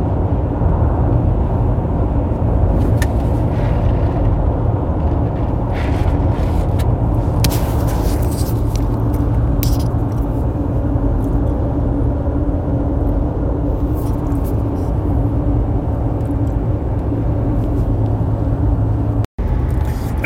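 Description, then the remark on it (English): Steady, loud engine and road rumble from inside a moving car, with occasional brief hisses and whooshes from other vehicles passing in traffic. No one speaks. “I uh, needed to uh, drink some more drink and uh, get through some traffic.”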